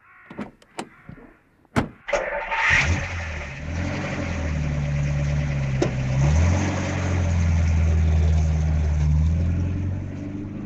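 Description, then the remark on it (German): A few sharp clunks of a car door as a reporter gets into his car, then an engine turns over and catches, settling into a steady rumbling idle before revving and pulling away as fast as possible. “Das heißt Abhauschach und es geht so, der Reporter setzt sich in sein Auto und haut so schnell wie möglich ab.”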